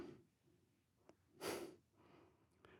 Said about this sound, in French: Le silence. C'est ma respiration.